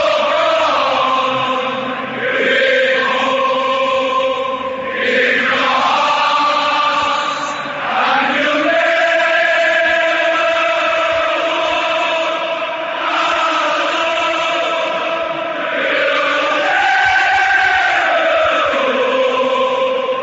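A large crowd of Liverpool football fans sings together in unison as the team walks onto the pitch, with sustained, swelling melodic lines that rise and fall in pitch. The chanting is loud and continuous for the whole stretch, with no speech over it.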